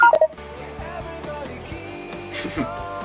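A WhatsApp message notification tone on a smartphone, signalling an arriving photo: a quick, bright double blip right at the start, loud, then fading into steady background music.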